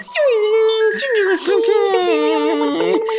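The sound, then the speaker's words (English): A voice imitates the dial-up modem tone heard when connecting to AOL or the internet on a computer, with about three seconds of continuous warbling, sliding pitched noises, fairly loud, with no actual words. “You click on your little AOL thing or your little internet thing, and the first thing you hear is a dial up tone.”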